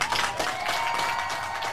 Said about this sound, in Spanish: Ahí está, los aplausos para mi compadre.